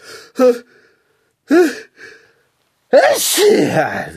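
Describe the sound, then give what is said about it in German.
A few short breathy vocal sounds build up, then a loud sneeze bursts out with a harsh, spraying rush of air that trails off near the end. “Gesundheit.”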